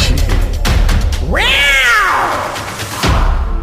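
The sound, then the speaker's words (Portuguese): A person imitates a jaguar roar, in reference to the telenovela Pantanal, with one loud, drawn-out vocal cry that rises in pitch and then sinks, sounding somewhat cat-like, framed by rough noisy bursts before and after. “Gostou do meu rugido”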